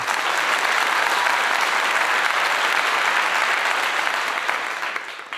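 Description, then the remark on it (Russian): Steady, dense applause from a crowd, loud and sustained with a rapid crackling texture, tapering off slightly near the end. No one speaks over it. “Аплодисменты вам.”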